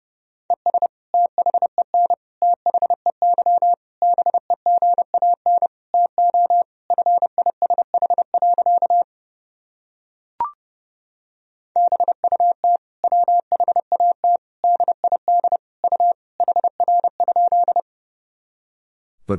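Fast Morse code beeps at 30 words per minute, sending sentences built from common words and abbreviations: a single steady tone keyed rapidly in two long runs, separated by a short pause and a faint click, clear with no voices.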